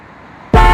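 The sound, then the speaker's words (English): After a brief quiet stretch, a car horn suddenly blares, a single loud, steady honk that continues to the end. “Honey, it was just a car.”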